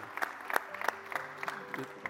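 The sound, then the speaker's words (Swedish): An audience applauds in a steady patter of many hands clapping, moderately loud and slightly distant, with a faint murmur of voices underneath. “Kan vi inte ge en applåd till de personer som valde att be detta kanske för första gången idag?”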